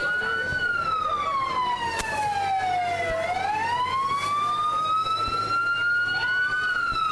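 A local fire brigade truck's siren wails loudly in a parade, its pitch sliding slowly down and then climbing back up in one long sweep over a steady rumble of outdoor noise.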